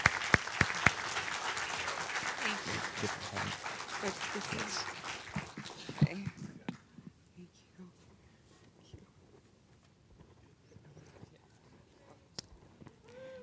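A crowd breaks into dense, steady applause for a woman who has just shared her story. It carries for about six seconds, then thins out to scattered claps and quiet murmuring before fading away.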